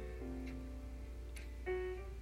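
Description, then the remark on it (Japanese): Slow, moody night-jazz background music: long held notes that shift to a new chord partway through, playing softly over a steady low hum with no one talking. “めっちゃムーディー笑えてくるんだけどエロ玉ラジオのこれは選曲ミス 選曲ミスでございますで朝とかはさ私結構これは夜のジャズの音だけど”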